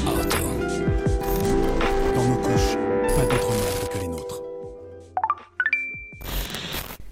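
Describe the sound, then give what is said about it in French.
A short, busy musical jingle with layered sustained chords and percussive hits, closing on a few bright rising chime notes and a held high tone before a final burst. “mais avant, jingle”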